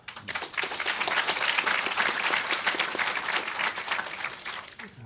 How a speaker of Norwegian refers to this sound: Han burde klappes for. Det er han som er den beste her. En klapp for han.